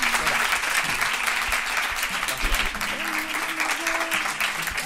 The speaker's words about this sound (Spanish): Bueno, un aplauso para Conchita. Gracias.